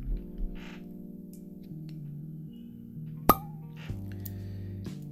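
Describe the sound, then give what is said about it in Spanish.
A single sharp pop of a cork pulled from a bottle of Trabún wine, crisp, rising briefly over soft, steady background music. “ya con el corcho prácticamente fuera de la botella, así que procedo a, a sacarlo.”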